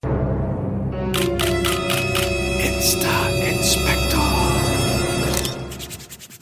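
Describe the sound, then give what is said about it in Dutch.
Quick, repeated swishing strokes of hands rubbing together, fairly loud, layered over a sustained musical jingle that fades near the end. “Hoor je dat, die handjes op elkaar zo, jongens?”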